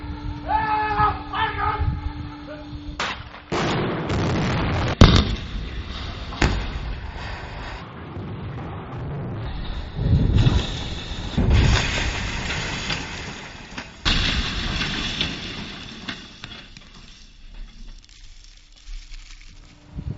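Explosive demolition of a silo charged with about 8 kilograms of explosive, 40 grams per running metre, set off at the press of a button: a series of sharp, loud blasts followed by a heavy, crumbling roar of collapse that rumbles on for several seconds before fading into quiet.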